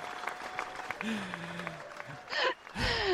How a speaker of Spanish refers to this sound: Tenemos a toda esta gente eh, eh, aplaudiendo ahí.